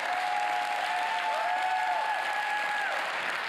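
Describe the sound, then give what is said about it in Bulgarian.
Sustained applause from an audience during a sermon fills the whole stretch, dense and steady, with a sustained musical tone, like a held keyboard chord, ringing faintly underneath. “О, ако ръкопляскаш, ръкопляскай, че наистина вярваш.”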